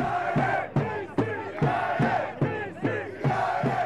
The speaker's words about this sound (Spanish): La afición americana ahorita lo escuchan cantar en español, cantan en inglés, los hispanos cantan en inglés, en español, y por último el que no sabe el idioma, salta.